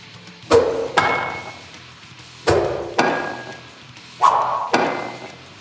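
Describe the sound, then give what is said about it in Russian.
Sharp, woody cracks of a baseball bat as the fourth-place hitter fouls off pitches on the very edge of the outside corner: six punchy hits falling in three quick pairs, each with a brief ringing tail and no voices. “Чипуя каждый мяч, пролетающий на самом пределе внешнего угла, стоит до сих пор не сломленный, незыблемый четвертый номер.”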